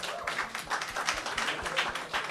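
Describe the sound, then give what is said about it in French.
An audience applauds steadily, many hands clapping in a dense, continuous patter that stays fairly even throughout, in answer to whether the evening's debate on secularism changed or clarified their position. “est-ce qu'il y a des gens qui ça les a aidés à changer d'idée ou à préciser leur position par rapport à la laïcité ce soir, juste par applaudissement?”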